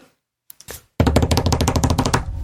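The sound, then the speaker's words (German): A few scattered taps, then a loud, rapid drum roll of fast, even strokes, played before the winner of a bird vote is announced, that runs steadily for about a second and a half, with no voices. “Und zwar hat mit 59.267 Stimmen vor der Rauchschwalbe und dem Kiebitz das Rennen gemacht, das Trommelwirbel”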